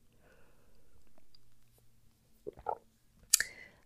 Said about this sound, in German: Lass uns zu Tipp 3 kommen und ich muss mal einen Schluck Wasser nehmen zwischendurch.